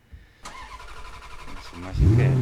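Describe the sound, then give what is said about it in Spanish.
A car engine cranks over with a whirring starter, catches, and then revs up loudly near the end, the pitch rising as it roars. “Y sin más, arrancamos, arrancamos, motores.”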